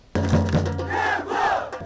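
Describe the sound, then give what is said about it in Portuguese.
More than 3,000 Flamengo football fans at the gate of the club's training centre roar and chant together to encourage the team, a loud, sustained wall of voices that starts abruptly and holds steady throughout, with a low rumbling hum beneath it. “Mais de 3 mil torcedores estiveram na porta do centro de treinamento do clube para incentivar o time.”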